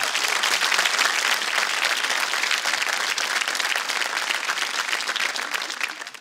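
Sustained applause from an audience, a dense wash of many hands clapping at a steady, loud level for several seconds, tapering slightly at the very end.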